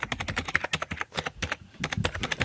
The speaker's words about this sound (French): C'est pas hyper clair. Hein. C'est un clavier, si vous demandez. Et le jingle est pas très fort, donc c'est. Je trouve que c'est tombé un peu à l'eau pour moi.